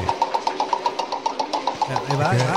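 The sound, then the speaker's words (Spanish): A rapid, steady run of squeaky clicks and grinding from a spinning roulette wheel, like a wheel on a dry axle, fairly loud, with a voice starting to talk near the end. “nuestra queridísima y ya tan gustada Le Ruleté, que tiene sonide de Motele Barate.”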